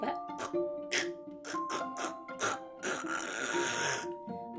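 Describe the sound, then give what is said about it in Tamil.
A voice imitates a frog, giving a quick series of short, rhythmic guttural croaks followed by one longer, raspy drawn-out croak, fairly loud. “அப்படின்னு சத்தம் கொடுத்துச்சு எப்பவும் போல தவளை எங்கேருந்து சத்தம் கொடுக்கும் தண்ணிக்குள்ள இருந்து”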